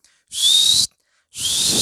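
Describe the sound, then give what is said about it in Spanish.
Two loud, breathy whistles ring out in a cinema hall, each lasting about half a second with a short silent gap between them, hissy and shrill with no talking around them. “empezar a chiflar en la sala o aventarle palomitas al proyector”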